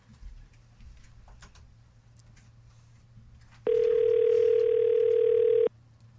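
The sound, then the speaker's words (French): A phone ringback tone sounds once, a steady, loud, pure beep lasting about two seconds, as a call placed from a studio number goes unanswered, following a quiet stretch of faint room noise with a low hum. “Gang, ça appelle.”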